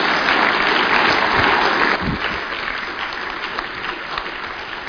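An audience at a service claps steadily for a person, a dense wash of many hands that starts loud and eases slightly after a couple of seconds but keeps going throughout.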